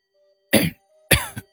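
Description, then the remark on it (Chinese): Two harsh, raspy coughs about half a second apart, with no talking; the second cough is slightly longer and ends in a short extra hack. “想看看里面有多少钞票时，忽然听到身后传来咳嗽声。”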